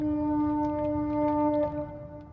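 The compressed-air foghorn of another ship back there sounds one long, steady, reedy blast, held over a low rumbling background and easing off slightly toward the end.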